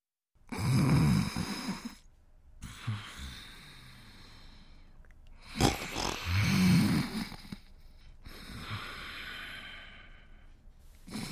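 Loud snoring of a sleeping man in slow repeated cycles, each rasping inhale followed by a softer exhale, with no voices in between.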